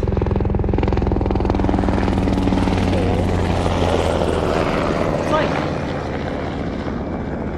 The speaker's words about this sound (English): Oh. Military helicopter going over us.